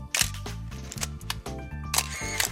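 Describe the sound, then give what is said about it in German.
A run of crisp camera shutter clicks, several sharp bursts at uneven intervals, sounds over a steady, low, droning musical background. “Hier macht es Klick.”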